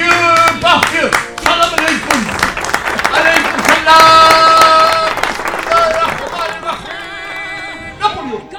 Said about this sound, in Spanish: para que pido también un fuerte aplauso.